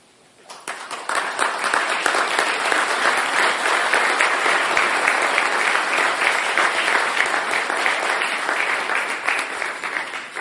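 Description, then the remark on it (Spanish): An audience breaks into sustained applause after a talk, a dense wash of many hands clapping that swells quickly and holds steady for several seconds without any talking over it. “Ay, lo más rico es cuando te pagan con aplausos.”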